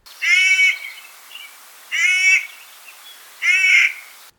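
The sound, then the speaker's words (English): A Clark's nutcracker gives three harsh, grating calls, evenly spaced about a second and a half apart, each rasping and fairly loud with no other sounds around them. “The Clark's nutcracker has a pale gray body and black wings and is about the same size as its cousin, the blue jay.”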